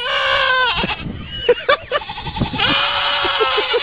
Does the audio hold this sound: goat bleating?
yes